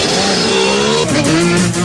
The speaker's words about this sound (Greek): Θέλω να ανέβω σε ρόδες σαν παιδί, να κάνω θόρυβο πατώντας άγρια γκάζι, όλος ο κόσμος να τα χάσει σαν παιδί, και απ' τη χαρά της η ψυχή μου να φωνάσει.